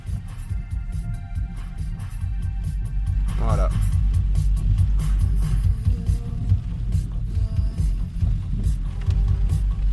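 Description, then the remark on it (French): A sustained, low synth pad drones steadily over a continuous rain-like wash, with a soft throbbing pulse underneath, while a voice briefly speaks over it. “un petit son en tapis de The Rain Within”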